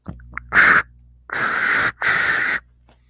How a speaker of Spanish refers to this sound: Cuando pisan tierra, el agudo oído del hombre increíble percibe un extraño sonido. Shh, escucha, se oye la estática de una transmisión inalámbrica.